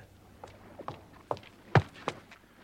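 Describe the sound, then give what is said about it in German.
A man's quick footsteps strike a hard surface in an even rhythm, growing louder as they approach in fog near Battersea Bridge, about six steps in all, with no voices. “Glücklicherweise hörte ich Schritte näher kommen. Rasche Schritte.”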